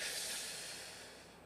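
A single long, deep breath, an airy hiss that starts strong and slowly tapers off, with no talking over it, a conscious breath imitating a smoker's drag without a cigarette between the fingers.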